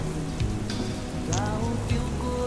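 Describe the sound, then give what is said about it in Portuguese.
Steady rain falls continuously with a dense hiss and scattered drips, with a few brief tonal sounds rising briefly in the background. “Antônio fica um tempo encharcado debaixo da chuva olhando a porta.”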